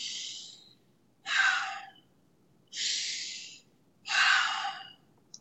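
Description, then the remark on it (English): Four airy breaths through the nose, inhales and exhales alternating in a steady rhythm, each lasting under a second. Fairly loud, with no talking over them. “Then it's nine or just nasal breathing after that.”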